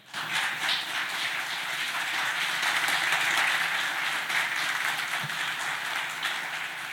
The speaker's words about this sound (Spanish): Amén, dale un fuerte aplauso a tu Señor.